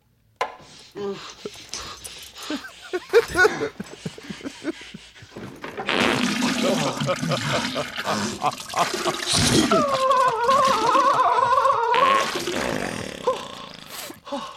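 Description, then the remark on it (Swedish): Loud, wet explosive diarrhea on a toilet in a film scene, after a man has drunk a bottle of laxative: sputtering, splattering bursts that build into a long continuous torrent, with strained groaning vocal sounds mixed in near the end. “Eller ska man bara spela upp liksom bajsscenen från Dum Dummare?”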